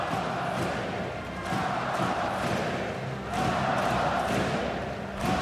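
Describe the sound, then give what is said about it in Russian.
A large hockey arena crowd of Russia national team fans chants "Molodtsy! Molodtsy!" ("Well done!") in unison. It is a loud, dense roar of many voices that swells and dips in a steady repeating rhythm, with no single voice standing out. “Слышите вы, как сейчас болельщики сборной России скандируют «Молодцы! Молодцы!»”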